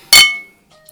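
Glasses clink once in a toast, a bright strike whose ringing tone lingers and fades over a moment, followed by a faint light tap near the end. No voices.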